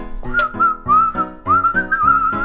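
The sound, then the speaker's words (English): A person whistles a melodic tune, the pitch gliding and wavering between held notes, clear, with soft backing music underneath. “Looks like our whistling accidentally summoned the Prince of Darkness.”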